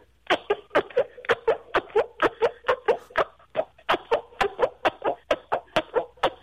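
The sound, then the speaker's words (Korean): A rapid, steady run of about twenty squelchy fart noises made by a phone caller pressing a palm against skin, each short and wet-sounding, fairly loud with no talking. “어디서 뱅귀가 나오는 거죠? 지금 그냥 저 손바닥에서요.”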